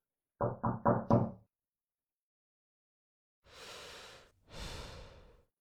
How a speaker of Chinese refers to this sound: 在殷切的期盼之下，办公室外终于传来了敲门声。